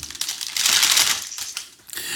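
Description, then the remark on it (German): Loud crinkling and rustling of a bag as a nut-corner pastry (Nussecke) is pulled out of it, a dense crackly burst swelling in the middle and continuing in uneven scrapes, with no talking. “Vielleicht, äh, ja, ich habe leider gerade mir noch mal eine Nussecke aus meiner Tüte genommen.”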